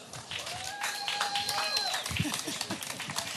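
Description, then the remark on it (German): An audience claps for Vincent Thieler steadily for about three seconds, a dense, even patter of many hands at moderate loudness, with a brief sustained cheer or whoop rising above it early on. “Kleiner Applaus für Vincent Thieler.”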